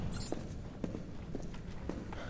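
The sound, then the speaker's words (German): Running footsteps through an open gate: about four or five evenly spaced thuds at a quick pace, moderately loud over a steady hiss of background noise, with no talking. “Carlos lief durch das offene Tor.”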